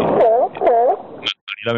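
A dog gives two short, wavering howls in quick succession, fairly loud, followed by a few brief higher yelps and whines at the end.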